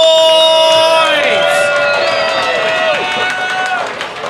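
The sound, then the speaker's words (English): A loud crowd at the comedy show Roast Battle Denver cheers and whoops, with piercing whistles and gliding yells layered over steady clapping. The roar holds strong throughout and only starts to ease near the end. “Wide right, make some fucking noise!”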